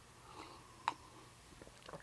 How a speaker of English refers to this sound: So before I do that, I'm going to take a little sip of tea here because my I want to keep my voice going.